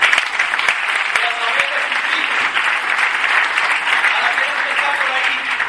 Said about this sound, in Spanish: Pero yo quiero un fuerte aplauso también para las dos familias fundadoras, Richie DeVos y Jay Van Ander.